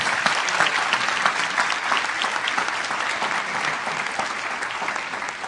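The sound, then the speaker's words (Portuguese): Sustained applause from a large church audience clapping for Jesus Christ, dense clapping holding steady and fairly loud for several seconds with no clear voices over it. “Vamos dar um aplauso para Cristo Jesus, irmão.”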